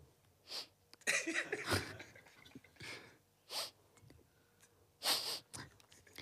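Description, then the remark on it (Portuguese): A voice imitates how another person sniffles while trying not to be heard: a series of short, breathy nasal sniffs and snorts in an irregular rhythm, fairly loud, with no words spoken. “Depois ela, ela, ela quer fungar, mas acha que eu não vou ouvir. Então eu, eu ouço assim.”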